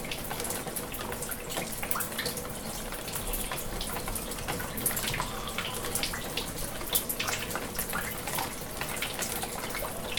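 Water flows steadily throughout, a continuous rushing hiss broken by small splashy bursts and trickles, at an even moderate level with no voices.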